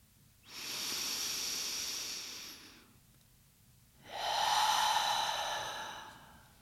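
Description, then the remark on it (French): A long, slow breath drawn in through the mouth, then after a short pause a long, airy exhale, breathy with no talking, during a guided breathing exercise. “Relâchez, Inspirez longuement.”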